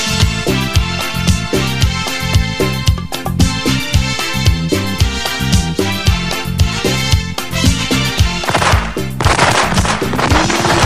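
Firecrackers (cohetes, a culebrón) going off in a loud, dense run of rapid pops and cracks with no break, ending in a burst of hissing noise.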